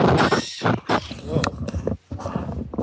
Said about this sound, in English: Yeah, I just had a little cough there. Sorry, I, I, I tried to cover things up, but maybe you heard me. it was just microphony sounds.